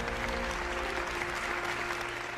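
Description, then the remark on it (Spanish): Steady applause from a crowd for senator Alejandro Armenta as he is given the 'Ya Merito Eres la Corcholata de Puebla' award, a dense, continuous patter of clapping that holds at an even level for the whole stretch, with a faint low hum underneath. “Un aplauso molecular para el senador Alejandro Armenta.”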